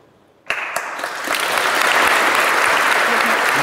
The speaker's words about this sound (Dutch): Ja, tenderend applaus. Ja, de zaal eh, mhm. stond helemaal achter haar.